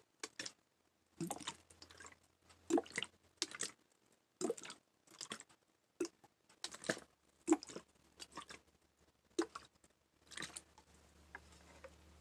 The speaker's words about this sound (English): Also, liquid sounds. Some people really, really, really like that.